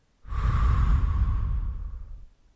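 A single long, deep breath taken during a relaxation breathing exercise, the second of three breaths, each held for a count of three and then released: fairly loud, a steady airy rush lasting about two seconds before tapering off, with no talking.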